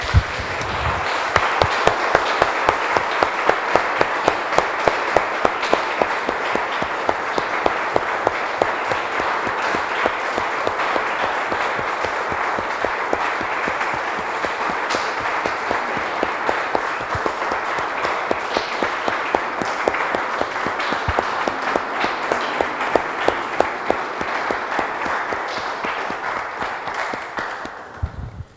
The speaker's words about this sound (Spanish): Amén y amén. Damos un aplauso, hermanos del Señor.